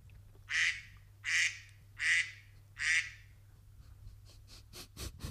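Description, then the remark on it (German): Four evenly spaced, nasal duck quacks ring out clearly, followed by a quick run of shorter, fainter quacking bursts, a duck sound chosen as a phone's ringtone, with a low steady hum underneath. “Also man hat die Möglichkeit, einen Entensound auszuwählen.”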